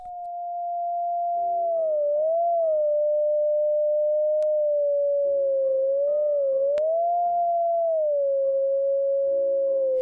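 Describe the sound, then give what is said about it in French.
A digital Terpsitone, a project begun at the University of Singapore in 2021 using the Xbox Kinect, plays Debussy's Clair de Lune as a slow melody, its pure, whistle-like electronic tone gliding smoothly between notes, steady and clear over faint, soft lower accompaniment. “Voici donc le Terpsitone numérique, un projet lancé à l'Université de Singapour en 2021.”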